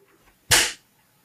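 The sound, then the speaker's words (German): One sharp, loud hand clap rings out with a short trailing decay, surrounded by near silence and no voices. “Mach mal einen Klopf, mach mal einen Clap.”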